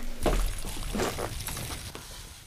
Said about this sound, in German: Dann Fidget Spinner.